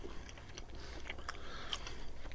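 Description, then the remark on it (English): Quiet chewing of a honey nougat roll full of tiny sesame seeds, with small crisp crunches and clicks scattered through, like teeth working through something crunchy and sticky. No one speaks. “Um, quite crunchy because of all the tiny, tiny sesame seeds.”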